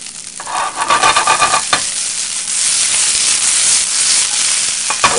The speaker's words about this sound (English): what you want to hear. You want to hear that sizzle. Man, that looks fantastic already.